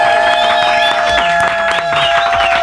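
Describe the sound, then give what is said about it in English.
A loud studio crowd cheers and applauds without pause, dense clapping mixed with whoops and high whistles, some voices shouting over the roar for the whole stretch. “Y'all, please give it up and show your love.”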